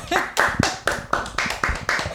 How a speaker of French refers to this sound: On peut l'applaudir.